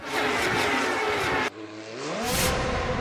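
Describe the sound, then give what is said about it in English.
A loud race car engine roars steadily, then after a brief dip revs up with a rising whine that climbs in pitch. No voices are heard. “He also owned a piece of an Indy race car team.”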